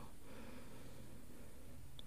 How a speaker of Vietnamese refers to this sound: mình thở ra mình hít vào thật là sâu